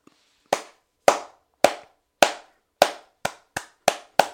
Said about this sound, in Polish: No ja biję brawo temu chłopakowi i to można było usłyszeć, bo no ja jestem pod wrażeniem weekendu tego chłopaka.